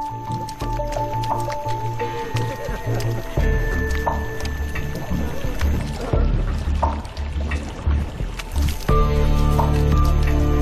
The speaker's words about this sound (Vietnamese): Cả nhóm lội qua bùn. Ban đầu rất khó khăn